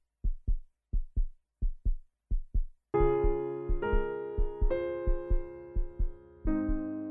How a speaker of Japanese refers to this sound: 心臓の音。きっと、私が母の体内で聞いた音だわ。